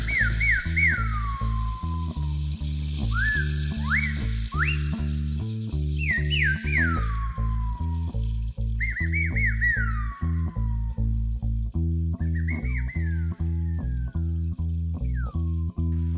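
A band plays a song live, a loud, steady instrumental groove: a pulsing bass line and repeated chords, with swooping, sliding high notes gliding down over the top. No voices are heard.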